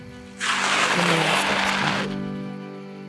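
A car pulls up, its tires hissing over the road with a low engine hum for about two seconds, then the noise cuts off and a faint idle hum lingers.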